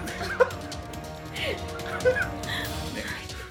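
A dog lets out two short, odd-sounding yips or barks about two seconds apart over a busy background hum with faint voices.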